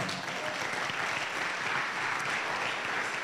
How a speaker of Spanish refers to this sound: Amén. De un aplauso al Señor.